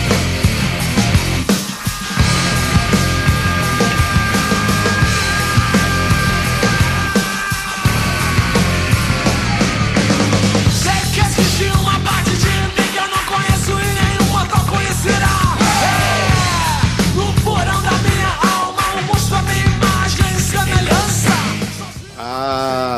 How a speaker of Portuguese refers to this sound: o que, que é aquele grito que o … dá tá no início